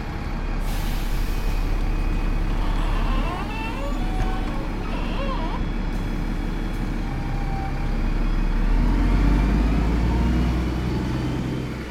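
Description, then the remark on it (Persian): A large bus rumbles up and brakes with squealing tones, then air brakes release a hiss as it comes to a stop right in front of a passenger waiting by the curb, heavy engine idling throughout. “از دور یه اتوبوس اومد با هیجان خودم رو آماده کردم که برم بالا از رو جدول اومدم پایین و یه جوری به راننده نشون دادم که آقا بجا ما وقت نداریم میخوام سریع سوار شم صدای ترمز اتوبوس اومد و پیس پیس کنن ایستا جلو پای من”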